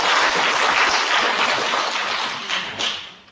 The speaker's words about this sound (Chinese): 所以呢，今天五四青年节应该是请大家用热烈的掌声， 呃，感谢各方支持，最主要是感谢大家自己，好不好？我们给点掌声，鼓励一下自己啊！